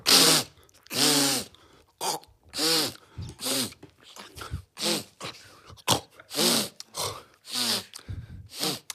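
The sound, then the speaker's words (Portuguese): A voice imitates a woman's nasal sniffling with a rapid series of loud, breathy snorts and gasps in an uneven rhythm, repeating over several seconds with short pauses between bursts. “Depois ela, ela, ela quer fungar, mas acha que eu não vou ouvir.”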